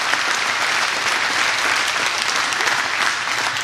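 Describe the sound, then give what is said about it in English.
A church audience applauding steadily for the volunteers, a dense, even wash of clapping that holds at a constant loud level throughout with no voices on top. “And can we just put our hands together for them real quick?”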